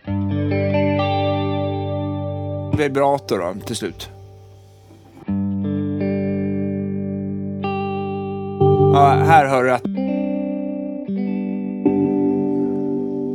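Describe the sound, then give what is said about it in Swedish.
Sustained electric guitar notes and chords processed with a swirling chorus and sweeping flanger, fairly loud, with brief spoken comments breaking in between the phrases. “Eh, sen så eh, DF. FC. Horus och Flanger tror jag ja.”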